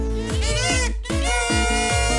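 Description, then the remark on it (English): A loud kazoo buzzes through a quick run of short melodic notes, each swooping slightly in pitch, with a brief break midway and no voices. “Tonight's episode of Tragic Heartbreaking News is brought to you by the Kazoo and Slide Whistle Emporium.”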